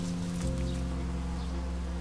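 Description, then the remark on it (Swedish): A dense, steady hum of hundreds of bees buzzing together as they collect nectar on a climbing plant on a house wall, a continuous droning swarm with no pauses, layered tones shimmering over the low drone. “Det surrar så mycket. Det är hundratals bin som jobbar på med att samla in nektar.”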